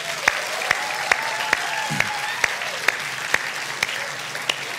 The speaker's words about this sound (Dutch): Zullen we deze geweldige vaders gewoon even een applaus geven, gewoon voor wie ze zijn.